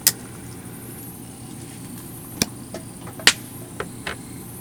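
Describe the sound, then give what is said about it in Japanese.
Campfire wood crackling: a handful of sharp, irregular pops and snaps, a few louder than others, spaced unevenly over a low, steady rumbling background with no one speaking. “これパチ入ったんじゃんはい入ったかもなパチパチしてるかな”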